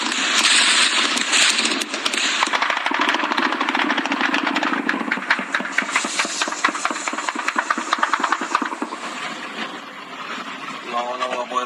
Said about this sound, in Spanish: Así tuvieron que despertar algunos habitantes en Reynosa y en Nuevo Laredo por una serie de balaceras y bloqueos, quema de camiones, a raíz de la captura de un capo del narcotráfico.